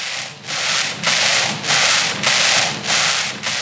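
A small knitting machine runs back and forth, giving a loud, hissing, rubbing sweep on each pass, with brief dips between strokes in a steady rhythm of about six passes.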